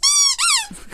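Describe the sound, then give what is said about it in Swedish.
A voice imitates three baby dragons singing, with two loud, high-pitched squeals, the first steady and the second rising and falling, followed by a softer breathy trailing sound. “Har du hört tre babydrakar sjunga någon gång?”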